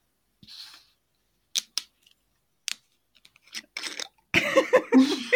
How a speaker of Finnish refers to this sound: Se oli kierre. No se siitä tosi hienosti kierähti tää sun korkki auki. Eikö? Toivottavasti se sihahdus sentään. Kyllä, kyllä se jäi, kuului.